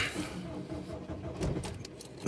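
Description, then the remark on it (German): Keys rattle, then a diesel car engine cranks in short uneven bursts but fails to catch and start, all heard from inside the car in dry weather. “Na, will er nicht? Si, si, si, si, si, no. Doch. So wirklich will er nicht.”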